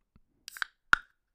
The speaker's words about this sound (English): in order to do that, I crack a cold one because, Lord, I'm going to need it.